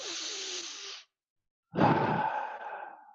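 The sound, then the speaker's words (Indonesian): A long, airy breath drawn in, a brief pause, then a deeper, louder exhale with a low rumble that slowly trails off, with no talking. “tuh suka suka narik nafas panjang.”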